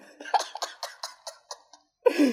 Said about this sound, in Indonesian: gue mau bersin dulu